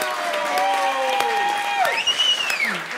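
A room full of people at a stand-up comedy evening claps steadily, a dense crackle of applause, with a few rising whistles and cheers cutting through over the three seconds.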